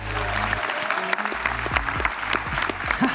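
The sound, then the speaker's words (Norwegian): A live audience claps steadily, a dense wash of many hands with scattered sharp individual claps, sustained at moderate loudness for a few seconds. “Ja, det er lov til å klappe!”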